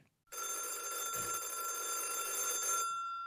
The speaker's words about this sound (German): Und hier klingelt das Radio Bremen Hörspieltelefon, das in jedem Radiokrimi aus den 60ern gleich schon unser kommendes Hörspiel an.